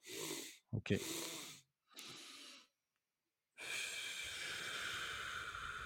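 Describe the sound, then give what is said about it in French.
Audible breathing in a physiological sigh: a few quick, sharp inhales through the nose in succession, a pause, then a long, steady, breathy exhale through the mouth lasting a couple of seconds. A brief spoken word slips in near the start. “ce qu'on va faire avec le soupir physiologique”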